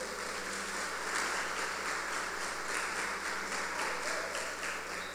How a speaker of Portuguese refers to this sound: Pode aplaudir Jesus.